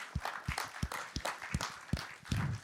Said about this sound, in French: Donc on peut l'applaudir parce que c'est son anniversaire en plus.